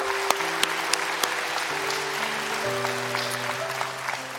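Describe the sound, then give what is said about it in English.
A church audience applauds a member becoming president of Bridge Builders International, steadily for several seconds, with dense clapping and a few sharper claps, while sustained low keyboard tones hold underneath and shift to new notes twice. “And yes, you can clap”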